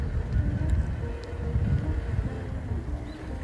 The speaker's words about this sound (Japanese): あ、大丈夫だったちょっと車が通り過ぎるのを待っていい